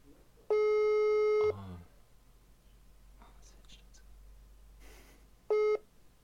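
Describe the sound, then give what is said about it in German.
A phone ringing tone plays over a loudspeaker during a live call from a studio: two steady electronic tones with rich harmonics, one about a second long, then silence with faint background rustle, then a shorter second tone. “Es klingelt, steht dran.”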